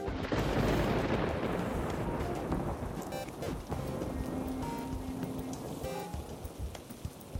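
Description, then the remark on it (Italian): Steady, heavy rain pours down, a dense continuous hiss with pattering on surfaces and a low rumble underneath, as of thunder, no voices present. “Nulla può rovinare questa giornata, neanche la pioggia. Ma è meglio non dirlo ad alta voce.”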